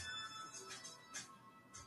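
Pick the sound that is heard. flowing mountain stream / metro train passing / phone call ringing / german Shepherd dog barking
phone call ringing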